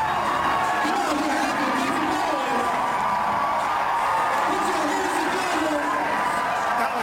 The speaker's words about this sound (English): Clearly, that paying off. Just listen to this crowd as they erupt in celebration.